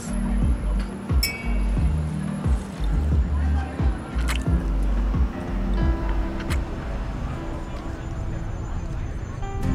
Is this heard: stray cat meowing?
no